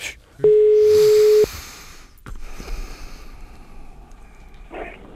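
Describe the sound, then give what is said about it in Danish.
A single loud, steady telephone ringback tone sounds for about a second, then gives way to quiet background rustling and faint handling noise while the line keeps ringing. “Øh, ham vil jeg prøve at få fat i, så jeg ringer lige ham op.”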